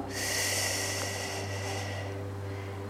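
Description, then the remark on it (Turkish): A single long, deep breath, fairly loud, rushes for about two seconds and then fades, leaving a steady low electrical hum underneath; a person sitting comfortably takes a big breath and slowly closes their eyes. “Kocaman büyük bir nefes alıyoruz.”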